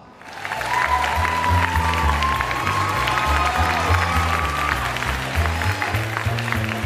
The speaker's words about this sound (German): Applaus.